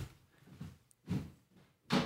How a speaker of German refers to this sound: Ich höre es zumindest. Tür geht zu.